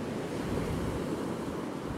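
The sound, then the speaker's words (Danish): Calm, gentle surf washes steadily onto a pebbly beach, small wave crests breaking white over the first sandbar and washing as foam over the small stones, a soft continuous hiss with no pauses or voices, even in level throughout. “De små bølgetoppe knækker først og bliver hvide, når de kommer ind over den første revle.”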